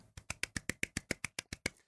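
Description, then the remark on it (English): A soft golf clap: about eleven light, even hand claps in a quick steady rhythm, slightly muted and polite, with no voices over them, lasting under two seconds. “So I'm going to give them the golf clap.”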